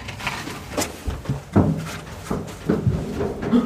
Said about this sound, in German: Ja, ja, geh mal auf. Tür auf hier.